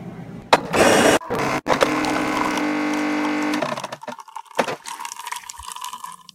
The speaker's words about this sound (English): Noise you heard at the beginning, that's my coffee maker, Rhonda.